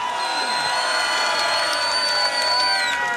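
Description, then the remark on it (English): A crowd cheers and whoops loudly and steadily for the DJs, a dense wash of voices with a few high sustained shouts riding over the roar. “enjoyed this set, please make some noise for …!”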